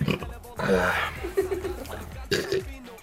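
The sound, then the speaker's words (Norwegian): A man lets out a long, loud, drawn-out burp, followed by a couple of shorter guttural belches and grunts. “Det var mye luft i den, så jeg må rape sykt”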